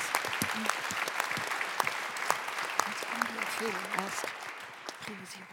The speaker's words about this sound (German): Dafür auf jeden Fall schon mal einen herzlichen Applaus. Vielen Dank für diesen Weg, den Sie gemeinsam gegangen sind.